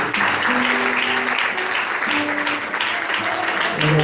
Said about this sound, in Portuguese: nos aplausos Senhor Jesus.